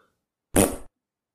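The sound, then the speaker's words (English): A single short fart, a brief buzzy burst of about a third of a second, fairly soft, surrounded by silence. “Well, that's just a, a hello and goodbye fart. Kind of. It's a nervous fart.”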